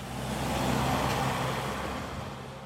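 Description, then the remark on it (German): Steady roar of road traffic, with cars bearing Spanish and French number plates in roughly equal numbers swishing along the broad through-road of the small town of Hivia, a low engine rumble underneath and a broad rushing hiss that swells and fades slightly. “In den Gässchen hört man spanische und französische Wortfetzen, etwa genauso viele Autos mit dem einen und dem anderen Kennzeichen rauschen über die breite Durchgangsstraße.”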